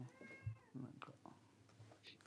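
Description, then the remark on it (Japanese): An adopted pet cat meows once near the start, a drawn-out tonal cry with rising and falling pitch, followed by quieter household sounds and faint background murmur. “猫の声聞こえるかなこれ、皆さんにも。”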